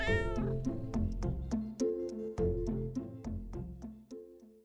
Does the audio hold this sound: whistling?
no